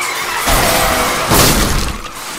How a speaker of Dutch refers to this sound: Ondertussen achter mij. Ja, ik heb een Klappen zes auto's vol op elkaar.